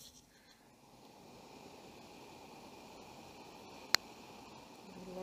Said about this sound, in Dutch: Ik vind het altijd wel een eh, magisch proces om die koffie te bekijken. Hoe die zo langzaam gaat borrelen. kijken of ik dat kan laten horen.